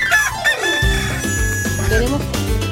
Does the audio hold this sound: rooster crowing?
yes